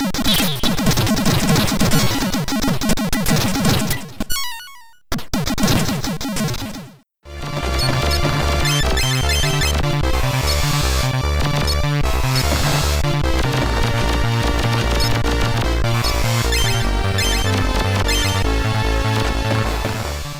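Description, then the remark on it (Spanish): Retro computer game audio comparing the Commodore 64 and Commodore Amiga versions of a game: a few seconds of harsh, sweeping electronic sound effects, a brief silence, then a loud, busy stretch driven by a steady repeating bass pattern. No one speaks. “Curioso que en Commodore 64 pues no hay música, solo efectos de sonido, ¿no?”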